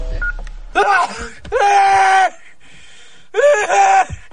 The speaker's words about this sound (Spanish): …, completamente angustiado y exhausto, grita desesperado